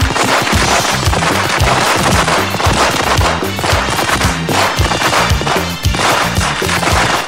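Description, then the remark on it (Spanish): A long, loud string of firecrackers (a culebrón) crackles nonstop as a birthday greeting, rapid pops overlapping into a dense, rattling barrage that never lets up, with no voices. “Así que vamos a poner cohetes, el culebrón.”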